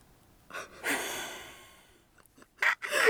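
Several heavy, breathy pants, a long drawn-out exhale followed by quick, rough gasping breaths, with no talking.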